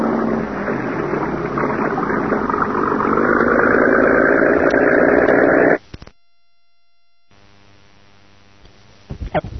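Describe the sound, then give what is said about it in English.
A cabin cruiser's engine runs with a steady, loud throbbing drone for several seconds as the boat is backed out of a boathouse into clear water, then cuts off abruptly into near silence before faint rumbling returns. “the boathouse, and boarded the cabin cruiser. And within a few minutes, the boat was backed out into clear water.”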